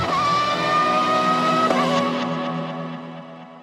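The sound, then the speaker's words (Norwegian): A loud, high-pitched Formula 1 engine screams past, its whine holding steady before dropping slightly in pitch and fading away as the car speeds off: Senna's car crossing the finish line with the best time during a qualifying session. No voices. “Like etterpå suser Senna inn i mål med den beste tida.”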